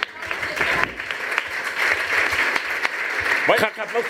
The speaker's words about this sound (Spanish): Venga, un aplauso.